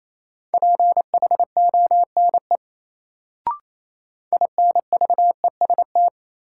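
Rapid Morse code beeps at 28 words per minute from a single steady tone, keyed in quick dots and dashes sending a drill word: one burst of characters, a brief pause with a small click, then another burst.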